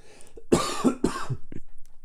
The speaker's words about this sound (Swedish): Så att jag... jag, jag fick en hostattack till.